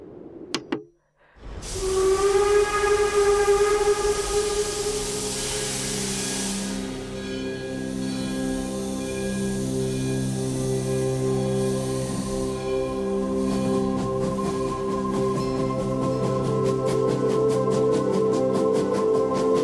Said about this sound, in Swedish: Spetsa era öron, för här kommer tåget.